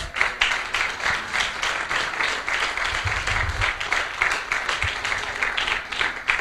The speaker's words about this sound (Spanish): Dale un aplauso a Cristo Jesús.